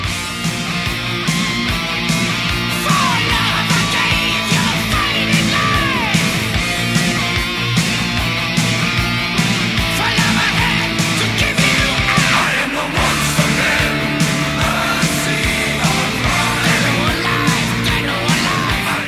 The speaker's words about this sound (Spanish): ese coro. El corito, corito. La canción. Ese coro alemán. La canción, la canción.